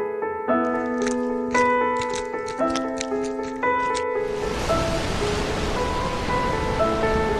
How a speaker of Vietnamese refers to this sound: Wow, thích quá Em ơi, chúng ta đang đi trên sóng Nhưng tại sao chúng ta có thể lướt đi trên sóng mà không hề hấn gì